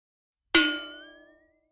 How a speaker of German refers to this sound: Das vertraute Geräusch des Schlüssels, der sich in der Zellentür drehte, drang an Reiners Ohr.